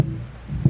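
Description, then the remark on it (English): Two deep, muffled ceremonial drum thumps, one at the start and another just before the end, over a low background murmur of a crowd, during a procession bringing in the American flag held up by firefighters and police officers. “the drum beats in the background the crowd surrounding the american flag as it's held up by several firefighters police officers there too”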